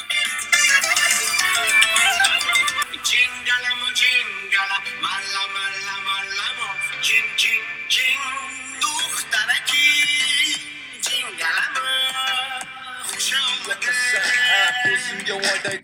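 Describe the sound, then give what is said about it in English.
Loud, continuous pop-style music listened to while in Uzbekistan, with bright, dense melodic layers and steady energy, full throughout with no pauses or talking over it. “So here is a quick summary playlist of music I listen to while in Uzbekistan.”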